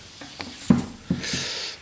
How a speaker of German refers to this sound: So, ja, wir sind analog. Papier raschelt.